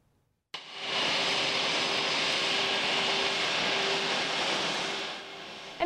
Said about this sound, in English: In less than an, in an hour, Meadows Field will have a larger plane taking off.